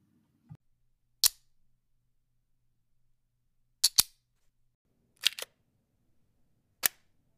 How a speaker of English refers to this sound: Those satisfying sounds are none other than the Groove Belt and Groove Wallet by Groove Life.